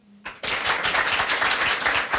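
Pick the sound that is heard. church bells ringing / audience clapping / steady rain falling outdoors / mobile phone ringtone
audience clapping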